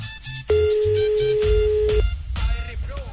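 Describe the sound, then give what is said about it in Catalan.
A telephone ringing tone on a call to a landline: one loud, steady mid-pitched beep lasting about a second and a half, framed by low background rumble and brief noise afterward. “Que l'estem trucant al fixe, que no sí, si, sortit un segon.”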